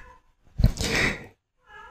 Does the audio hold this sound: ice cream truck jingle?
no